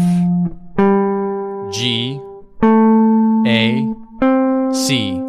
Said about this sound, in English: Now, still thinking about that D minor 7, we can simplify it by just making it a D minor pentatonic scale. Now, a lot of people know the minor pentatonic scale, they're very familiar with it. Sounds like this.